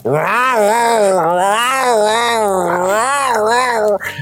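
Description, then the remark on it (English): A voice imitates a Sasquatch's groan: a loud, sustained, wavering moan that rises and falls rhythmically, sputtering like a car engine that won't start, lasting about four seconds before cutting off. “Just sounds like a car that won't start.”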